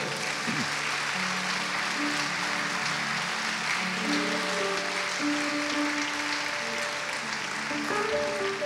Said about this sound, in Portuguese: Vamos dar um lindo aplauso ao Senhor.